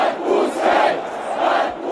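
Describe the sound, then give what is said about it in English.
Some 60,000 people at a sanctioned protest in the center of Moscow shout in unison, a dense roar of many voices swelling in rhythmic waves, each chant rising and falling about every second, loud and continuous with no single voice standing out. “And it led to one of the biggest demonstrations in recent memory some 60,000 people came to a sanctioned protest in the center of Moscow.”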